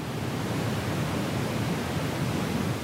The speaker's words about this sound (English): So, an audio engineer might want to balance those tones out a little bit by boosting the bass. This would be known as pink noise. And red noise is an even deeper version.